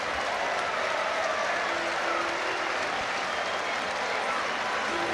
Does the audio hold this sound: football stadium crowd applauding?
yes